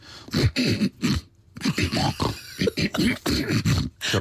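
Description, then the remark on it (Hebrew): A voice imitates a man clearing his throat while waiting in a queue, a run of about a dozen rough, guttural hacks and grunts in quick succession, fairly loud, with a brief pause midway. “זה לא שיעול, זה כן.”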